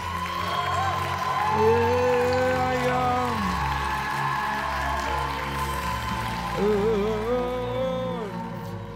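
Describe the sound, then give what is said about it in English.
A large audience claps steadily and loudly for several seconds, a dense wash of hands with voices calling out and cheering over the top. “If you believe it, clap your hands like there's no tomorrow.”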